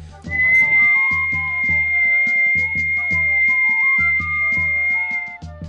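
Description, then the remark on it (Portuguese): Eerie human whistling, loud and close, on an empty market street at night, holds a long piercing high note while lower wavering tones shift beneath it, over a steady pulsing low rhythm, with no one speaking. “Quando desceu a ladeira, já passando pela rua do mercado, novamente o assovio. Mas dessa vez era mais alto, como se estivesse bem mais perto dele.”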